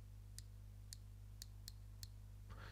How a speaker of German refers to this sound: Dort findet sich unsere Airflow, das heißt ein Rädchen, das könnt ihr verdrehen. Was ich da sehr toll finde, und zwar ist es äh, stufenweise eingeteilt. Man hört es auch ganz gut. Ich verdrehe das einmal.